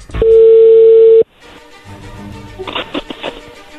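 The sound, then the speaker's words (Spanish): A telephone line sounds a single loud, steady ringing tone for about a second as a call is being dialed, then cuts off abruptly, leaving quieter line hiss and some soft clicks and rustling. “Prepárate, lobo, ahí se está marcando, no hagas ruido”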